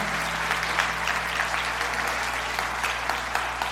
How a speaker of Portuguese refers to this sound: Mais uma salva de palmas para Jesus por toda cura que ele operou aqui.